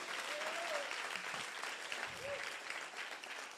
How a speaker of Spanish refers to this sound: Alguien dice gloria a Dios, alguien le da un aplauso fuerte al Señor. Vamos, eso merece un aplauso fuerte al Señor.